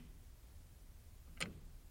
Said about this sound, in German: Seine Wohnung ist ruhig, nur die tickende Wanduhr ist zu hören.